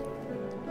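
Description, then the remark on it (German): Light, quick knocking on glass, a few faint taps close together over a low steady hum, heard from a distance, with no talking. “Entfer entfernte, äh, an Glas klopfende Klopfgeräusche.”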